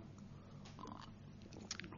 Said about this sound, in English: Um, just have a sip of water.